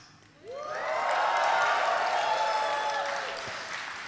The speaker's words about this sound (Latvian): tagad gribētu dzirdēt patiešām tādas skaļas ovācijas, ja tas attiecās uz jums.